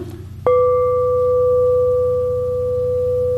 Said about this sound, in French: Le sens, une cloche sonne, c'est pas euh, une porte qui euh, grince, c'est comme immédiat, ça c'est pas une pensée comme telle, mais c'est ce qu'on appelle une perception, une reconnaissance.